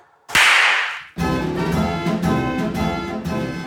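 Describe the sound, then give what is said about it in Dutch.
A single sharp high five hand slap, a loud crack with a hissy tail lasting nearly a second, then upbeat music with steady tones starts right after. “Correct, dat is juist. High five.”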